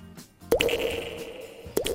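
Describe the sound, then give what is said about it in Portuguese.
Two water drops plink into a pool inside a cave, the first ringing out with a long, hollow echo before a second drop lands near the end. No voices. “E agora, e a gota de água dentro de, dentro de uma gruta, com eco, com eco.”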